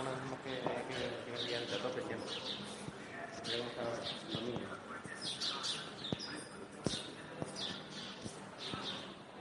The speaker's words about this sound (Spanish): Fijaros, esto es un centro comercial. ¿Lo oís? Hay pájaros. Qué barbaridad.